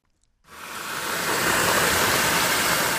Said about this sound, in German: dann fließt das Wasser. Es wird gemessen und es gibt schockierende Entdeckungen.